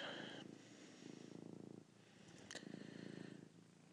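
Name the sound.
cat purring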